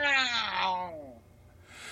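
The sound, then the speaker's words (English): A person imitates their cat's loud yowl with one drawn-out, wavering wail that slides downward in pitch for about a second and fades, followed by a faint low rumble. “Can you hear my cat so loud it sounds like he's dying?”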